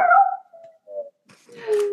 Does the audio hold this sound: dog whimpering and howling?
yes